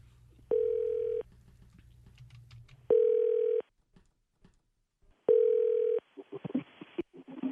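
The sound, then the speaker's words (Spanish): A telephone line tone sounds three times as a phone call is placed: steady, mid-pitched buzzy beeps, each under a second long with pauses between. A low hum comes before them, and faint clicks and rustling follow at the end. “Márcale, por favor, tu cara, perro.”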